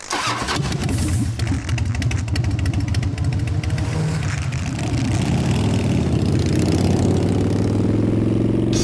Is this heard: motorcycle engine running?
yes